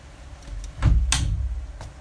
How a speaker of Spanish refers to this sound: Déjenle cierro más a la ventana porque ya estoy viviendo